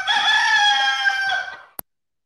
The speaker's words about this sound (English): when the rooster gets to crowing, cock a doodle.